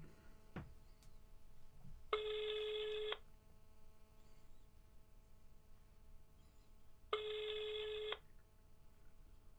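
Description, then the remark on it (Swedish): Two long electronic ringback tones, each about a second, spaced several seconds apart, with a steady buzzy harmonic sound at moderate loudness and quiet background between them. “Nu ringer det.”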